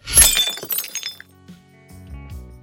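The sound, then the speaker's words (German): A loud, dense burst of shattering glass, a sound effect built from 28 layers with no reverb, with many overlapping shards crashing at once, followed by scattered tinkling and a few low clinks as pieces settle, heard alone. “Der fertige Sound besteht aus 28 Ebenen. Nur so lässt sich die Bewegung und das Klirren perfekt transportieren.”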